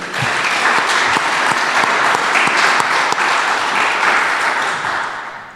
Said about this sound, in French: Euh, merci à Aurélien Delieu. Applaudissements pour Aurélien Delieu.